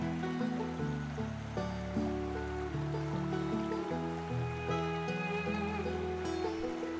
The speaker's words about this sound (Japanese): あれよく耳を澄ましてみて滝の音が聞こえてくるよ